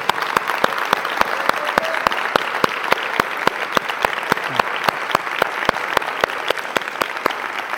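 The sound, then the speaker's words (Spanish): Steady audience applause welcoming a musician and writer as a guest fills the whole stretch, a dense wash of many hands clapping with sharp individual claps popping out in a fairly regular rhythm, no voices on top. “Y pues bueno, sin más preámbulo, el día de hoy con nosotros …. Un fuerte aplauso.”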